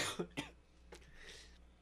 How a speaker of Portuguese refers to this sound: Tossi aqui, mas é porque a garganta já está indo embora.